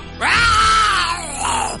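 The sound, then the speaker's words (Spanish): A human voice imitates the roar of Bagheera the panther after he knocks over a cauldron: one loud, strained, drawn-out growling cry that swells, sags, then surges briefly again before cutting off. “Bagheera derribó el caldero y lanzó un rugido.”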